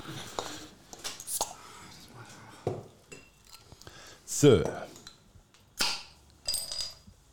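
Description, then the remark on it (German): A bottle of Gösser Austrian Radler beer is opened: clinking glass and handling noises lead to a sharp pop and a short airy hiss, while someone murmurs briefly in the background. “Ein österreichisches Radler? …? Ja. Ein Gösser? Warte ich mal jetzt auf, bevor nachher es zu laut wird.”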